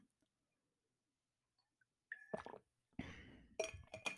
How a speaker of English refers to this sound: Um, let me take a sip of water, okay? So, yeah.